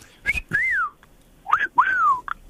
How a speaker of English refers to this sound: is this because you can't whistle? Are you one of those men that can't whistle? No, of course I can whistle. Yes. Then give me a, whistle.